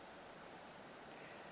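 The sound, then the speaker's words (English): A voice imitates rushing wind, copying a wind-like sound recorded during a church meeting, with a steady, breathy whoosh that holds evenly for under two seconds, soft and unbroken, with no words spoken. “It sounds like a wind coming through the meeting.”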